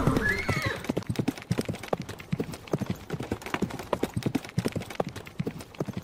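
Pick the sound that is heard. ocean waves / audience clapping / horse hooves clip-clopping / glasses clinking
horse hooves clip-clopping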